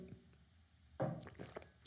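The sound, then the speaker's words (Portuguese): Someone takes a quick sip of water: a soft wet slurp, then a few small gulping, swallowing clicks in otherwise quiet surroundings. “Deixem só dar aqui, o quê? Um gol d'água naturalmente.”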